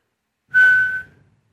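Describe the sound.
A single steady whistled note, held at one pitch for about half a second, loud, with a breathy edge and a quick fade, imitating a lone tone. No talking.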